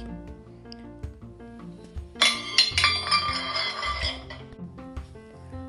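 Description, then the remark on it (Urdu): A plate of karahi meat curry is knocked to the floor by a cat pouncing on a boy who was eating. It crashes with a sudden bright clatter and a few ringing clinks that settle over about two seconds, heard over a steady background of soft music. “اچانک سے بلی آئی اور اس نے عادل پر جھپٹا مارا اور اس کی گوشت کی پلیٹ گرا دی”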